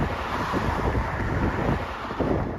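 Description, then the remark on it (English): Steady, blustery wind rushes over a tidal creek, Dunbar Creek on St. Simon's Island, with a soft wash of lapping waves underneath. The roar stays fairly even throughout, with no voices. “Today, Dunbar Creek looks like any other tidal creek you might drive across on your way to the beach at St. Simon's Island.”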